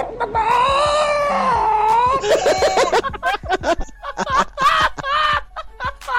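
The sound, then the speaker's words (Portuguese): A voice actor dubbing the character Sean imitates a chicken, talking and clucking at the same time, starting with a long, wavering squawk and breaking into quick, choppy clucks and squeaks. Loud, with no other sounds around it. “O Sean falando e cacarejando ao mesmo tempo, nós, a gente vê que não é um trabalho forçado, né?”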